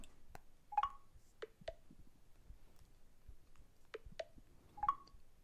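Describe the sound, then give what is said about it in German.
Short electronic beeps and clicks from an iPhone keypad as it is unlocked after face recognition fails, about six quick taps in two small bursts, fairly quiet, with no talking. “Nun gut, ähm, ich habe es jetzt entriegelt.”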